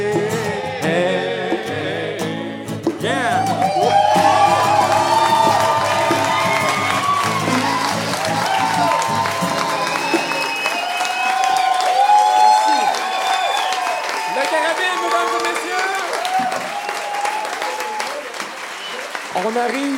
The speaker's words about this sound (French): On vous applaudit individuellement. Ah oui. tous et trois. Tous et trois.